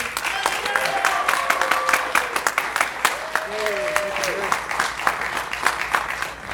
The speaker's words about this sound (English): Please give a gigantic round of applause